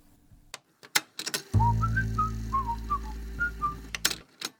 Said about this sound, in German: Das war … von …. Den Song habe ich ausgewählt